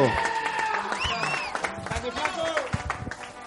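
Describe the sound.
A crowd applauds steadily throughout at a stand-up comedy show, dense clapping mixed with scattered cheers, whistles and overlapping voices, moderately loud and sustained.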